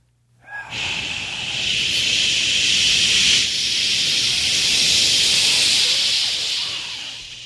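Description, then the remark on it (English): Several people hiss together into a microphone in a sustained, loud, breathy stream close to the mic, holding steady for about seven seconds before tapering off slightly at the end. “Everybody, when he goes turn up, everyone make like hissing sound into the mic.”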